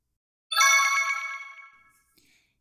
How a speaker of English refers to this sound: We also had the interns set up these cool little buttons that make noises when we press them.